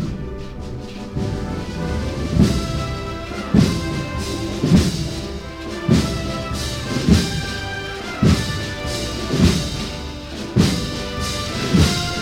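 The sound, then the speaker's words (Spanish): A brass band accompanying a religious brotherhood's procession plays a slow, solemn processional march, with sustained full chords over a steady bass drum beat about once a second, loud, with no voices. “Este es el sonido de la banda de música Nuestra Señora de la Victoria, la cigarrera, que es la que acompaña a esta hermandad.”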